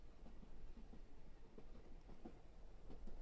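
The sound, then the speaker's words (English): A steady low rumble of a moving train fills the space, with faint, irregular wheel clicks on the tracks barely poking through the noise. No one speaks. “You can barely hear the wheels clicking along the tracks.”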